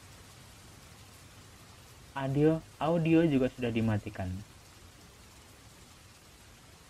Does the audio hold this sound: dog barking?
no